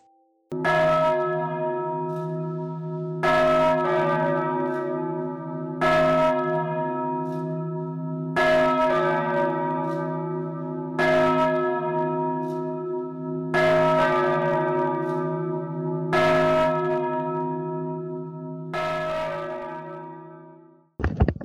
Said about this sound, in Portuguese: O morto-vivo sobe até o topo da torre da igreja. E então ele toca. O primeiro sino.